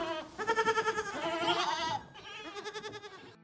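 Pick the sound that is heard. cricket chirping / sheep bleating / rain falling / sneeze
sheep bleating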